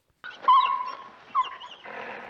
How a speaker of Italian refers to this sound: Due cani, due Doberman, Zeus e Apollo.